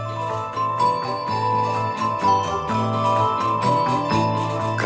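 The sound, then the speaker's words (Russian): An instrumental song intro plays alone at a steady, fairly loud level: full, sustained chords over a low bass line, with a regular rhythmic pulse and bright tinkling accents on top. “вот песню в его исполнении сейчас давайте послушаем давайте”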